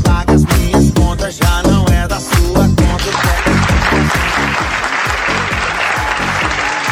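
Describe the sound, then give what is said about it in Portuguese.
A bouncy, rhythmic music passage cuts off and gives way to a crowd clapping steadily for a dancer, a dense wash of applause that stays fairly loud until the end. “Uma salva de palmas pro bailarino.”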